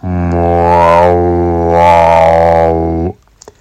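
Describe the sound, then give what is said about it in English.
A single voice sings a steady, droning chant on one held pitch for about three seconds, its vowel shifting midway, clear, a prayer-like opening chant that starts a yoga practice, then it stops abruptly. “You start off with an opening chant, similar to a prayer.”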